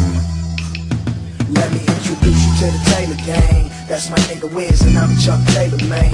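A loud hip-hop track with a heavy, sustained bassline and punchy percussive hits, built over a sampled retro band groove; no voices stand out.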